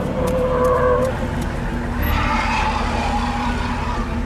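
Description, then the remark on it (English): A military truck skids to a stop by snow-covered ground with a sustained tonal tire squeal over a low engine rumble, loud, easing into a steady idling drone after a couple of seconds. “I was about to lash out against the approaching gargoyles when a military truck pulled up behind them.”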